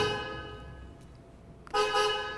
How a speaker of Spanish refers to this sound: Y de repente vas manejando y necesitas estar despierto y alguien te toca el claxon.